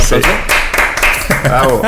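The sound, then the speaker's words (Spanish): A short burst of loud hand clapping, several sharp claps at an irregular quick pace, mixed with overlapping voices and laughter. “Con un aplauso, ¿no?”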